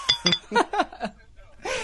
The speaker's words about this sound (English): Not to mention, I can hear bottles clinking over there as, as the podcast goes on.